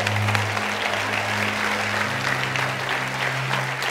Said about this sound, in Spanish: Un aplauso a todos ellos, porfa.